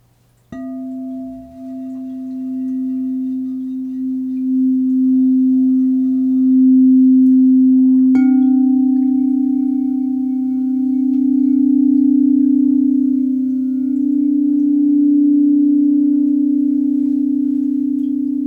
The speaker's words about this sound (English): This interval is called a whole step.